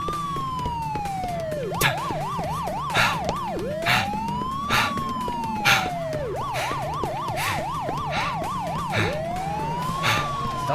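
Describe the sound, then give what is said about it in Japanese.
A loud police car siren, approaching, alternates between a long rising-and-falling wail and a rapid yelp, holding steady over a low engine rumble, with no voices. “警察が来るわ”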